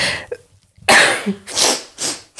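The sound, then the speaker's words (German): A loud, explosive sneeze with a sharp breathy burst, followed by two shorter, softer bursts of air a moment apart. No one speaks. “du musst jetzt niesen.”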